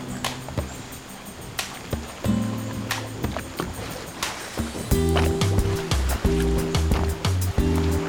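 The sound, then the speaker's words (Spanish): River water laps and gurgles steadily around a motorboat drifting with its engine switched off, with occasional sharp knocks and a low tonal hum that swells in the second half. No one speaks. “entonces él apagó el motor y esto permite que el río nos empuja para donde él quiere empujarnos. Estamos simplemente a la deriva y esto es para no molestar a los delfines.”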